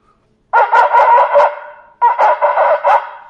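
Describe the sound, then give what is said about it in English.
A shofar is blown in a demonstration of shvarim, two loud bursts of broken, wavering blasts, each made of several short pulsing notes that rise and fall, with a brief pause between the groups and no talking. “This will be a longer one, what we call, as we'll see, shvarim, and then you have a shorter sound.”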